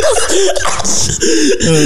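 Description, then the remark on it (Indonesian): Loud coughing in a few rough, voiced bursts over a couple of seconds, with a strained, throaty edge and no talking. “batuk.”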